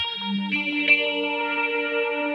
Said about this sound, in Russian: Вот смотри, подожди, тест. Вот, вот при этих э, аккордах какие у тебя воспоминания?